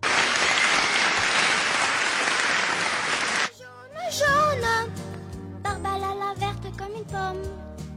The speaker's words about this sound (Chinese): 来点掌声。